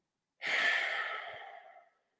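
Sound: deep exhale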